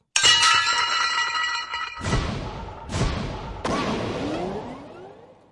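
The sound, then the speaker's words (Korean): A clay jar smashes: a bright ringing clang opens, then three heavy crashes follow in quick succession, each trailing off in rattling, crumbling shards. No one speaks. “항아리가 깨지고 나자 그 많고 많던 원님의 아버지가 모두 사라졌어요.”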